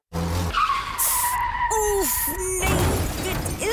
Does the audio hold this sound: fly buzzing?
no